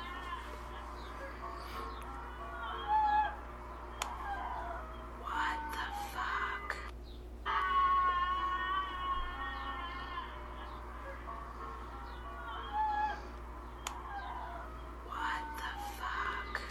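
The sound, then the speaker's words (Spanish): An eerie, wavering wail from a video recording rises and falls over a steady low hum, like a mournful lament, with a stronger drawn-out cry in the middle and quieter ones after. “Ese es el grito.”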